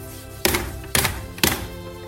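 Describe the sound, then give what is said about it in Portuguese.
Three heavy knocks on a door, evenly spaced about half a second apart, each a loud dull thud with a short ring-off, with no voices. “As duas já tinham espiado as rocas a porta ouviram-se três pancadas.”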